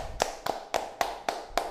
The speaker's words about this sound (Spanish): Un aplauso, un aplauso.